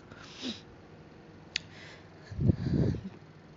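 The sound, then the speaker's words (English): An air conditioner switches on: a soft airy hiss, a single sharp click, then a louder low rumbling whoosh as the unit kicks in, with no one talking. “That's the sound of my aircon is turning on.”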